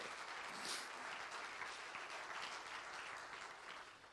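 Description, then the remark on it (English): An audience claps in praise of God, steadily, dense overlapping handclaps forming a continuous, fairly loud wash of applause that holds evenly throughout with no talking over it. “Well, we ought to clap our hands to him because He alone is worthy.”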